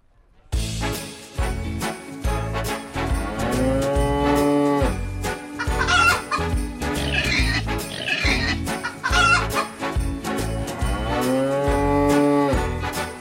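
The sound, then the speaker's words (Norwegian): Hens cluck in quick, repeated bursts amid a busy, loud barnyard din at a folk museum's animal area, with deep lowing from cattle rising and falling in long calls alongside them. “Her har vi altså noen høner.”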